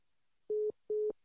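A telephone busy tone after a caller's phone-in call drops: steady, clear beeps pulsing in a fast on-off rhythm, three short bursts, fairly loud with no voices.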